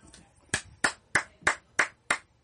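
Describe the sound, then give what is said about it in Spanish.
Six sharp hand claps in a steady, deliberate rhythm, each a crisp smack with a quick decay, preceded by a faint lighter clap; no voices. “Oye, te, voy a aplaudir, weón.”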